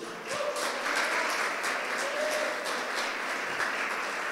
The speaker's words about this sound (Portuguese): E se você quer isso para você, aplauda Jesus bem alto.